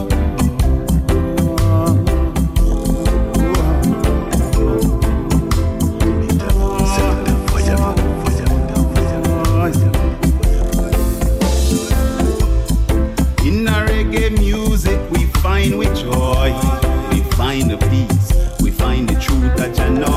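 A full music track plays continuously and loudly, with a steady driving drum beat, deep bass and layered melodic instruments, and no one speaking over it.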